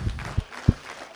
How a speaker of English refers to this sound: Somebody give him a hand clap of praise. Come on now.